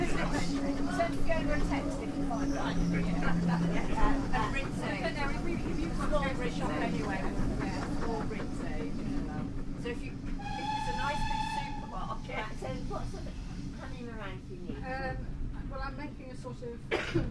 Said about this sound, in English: We've reached Lydney Junction. Now the tank locomotive will be taken off the front of the train and run round to the other end of the train so that it can go back up to Parkend.